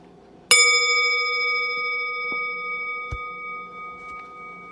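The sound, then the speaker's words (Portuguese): A single meditation bell strike rings out clearly, its bright tone sustaining and slowly fading over several seconds, with a few faint soft knocks in the quiet background. “E quando eu convidar o sino a soar mais uma vez, simplesmente mantenha a postura e cada uma e cada um se mexe no seu tempo.”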